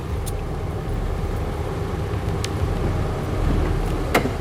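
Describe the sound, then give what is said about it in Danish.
A small car rolls slowly through the gate into the garage of a large modernist apartment complex, its engine a steady low rumble, with a few brief sharp clicks and knocks along the way. “gelejder den lille bil ind bag porten til det store modernistiske lejlighedskompleks, hun bor i.”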